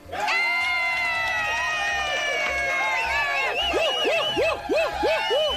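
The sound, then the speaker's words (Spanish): A loud crowd shouts and cheers continuously, many voices overlapping in a sustained roar with rising, wavering yells that grow more excited toward the end. “Pero, pero aguanta los gritos para después.”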